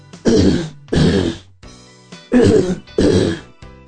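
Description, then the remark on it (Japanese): A person imitates a crocodile's guttural, croaky call with four loud, rough throaty bursts in a steady rhythm, sounding like forceful throat clearing or a burp, with no speech. “ワニの声は、うーん、ゲップのような濁った声。”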